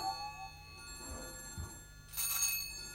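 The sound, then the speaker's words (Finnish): A telephone rings with a steady, bright metallic bell tone, and a brighter burst of ringing swells near the end. There is no talking. “Vastaa se kippuräntä puhelimeen, mä menen avaamaan.”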